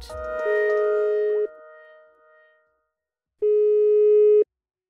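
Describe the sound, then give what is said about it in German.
An old green telephone on a wooden chest of drawers in a dining room rings in two steady electronic tones: a long burst with a sharp onset, a pause of about two seconds, then a second identical burst. Loud, no voices. “Wenn das Telefon klingelt, geht Antoinette Alte-Höfer mit schnellen kleinen Schritten zur Holzkommode ins Esszimmer, auf der ein alter grüner Apparat steht.”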